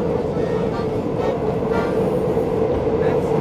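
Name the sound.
metro train passing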